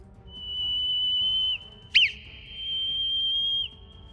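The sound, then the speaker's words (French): A clear, steady whistle sounds out a long tone, a quick short chirp, then another long tone, spelling the Morse letter K on its own with no talking. “Par exemple, la lettre K qui s'écrit trait, point, trait sera”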